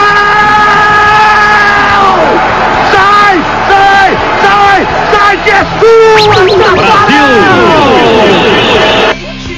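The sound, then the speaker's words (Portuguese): A loud crowd of football supporters in a stadium at a Brazil versus Germany match shouts and chants "leva" together, a dense mass of voices with rising and falling pitched cries that swell repeatedly throughout before cutting off at the end. “torcida gritou leva.”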